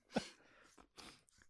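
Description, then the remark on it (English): A single sharp sneeze bursts out, followed by a quieter breathy exhale and a second softer gust of breath, with no talking. “Bless me.”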